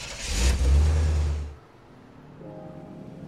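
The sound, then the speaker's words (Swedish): A car engine starts with a loud rumbling rev lasting over a second, then drops to a quieter, steady idle hum. No one speaks. “Du viker ihop kartan, justerar sätet och trycker på play och så startar du bilen.”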